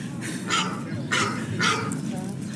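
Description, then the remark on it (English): A phone ringtone of a dog barking sounds three times in a steady rhythm, the barks fairly loud and clear over a low background hum. “My phone's got a barking. That's quite appropriate, isn't it?”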